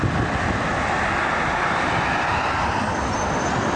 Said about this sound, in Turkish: Hafta sonu Trakya'daki illere giden Çanakkale ve güzergahındaki tatil beldelerinde haftanın yorgunluğunu atmak isteyenler pazar akşamı bu trafiğe takıldı. İstanbul yolunda 20 kilometreyi bulan uzun araç kuyrukları oluştu.